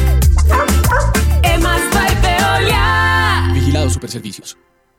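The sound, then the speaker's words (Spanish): A dog barks repeatedly in quick, loud bursts over a busy musical backing, the yaps crowding the first couple of seconds before everything cuts off abruptly. “Recoge del piso lo que tu perro hizo.”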